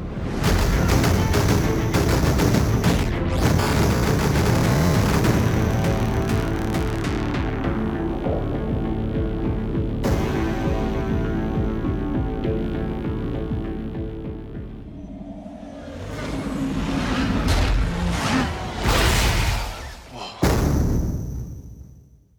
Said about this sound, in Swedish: jag fick lite i princip ståpäls när jag hörde det finns en baskagge som i slutet av trailern smulas sönder av digitala effekter och det låter fantastiskt. Vi kan ta och lyssna kort på bara slutet av trailern här.